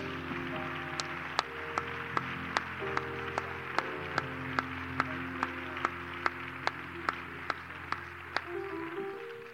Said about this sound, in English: And everyone said a great big amen. Give the Lord one more good hand clap of praise.